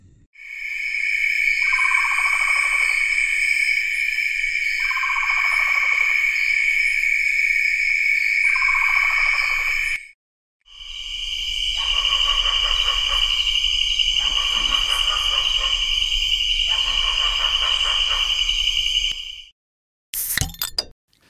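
Loud insect song of a newly described hybrid cicada species, with a harsh buzzing drone that swells into repeated rasping, bark-like bursts about every two to three seconds, with no voices.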